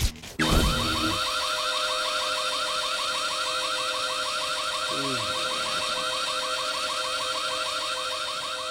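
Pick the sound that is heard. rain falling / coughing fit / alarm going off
alarm going off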